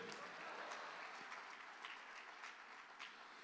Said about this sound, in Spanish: Vamos, dele palma fuerte al Señor. Dele palma fuerte al Señor, hermano, a su nombre.